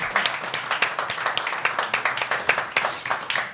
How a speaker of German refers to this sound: Dafür können wir mal klatschen.